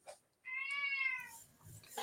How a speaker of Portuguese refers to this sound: O gatinho tá, tá miando aí no fundo. Né? Vou, vou, tirar ele ali.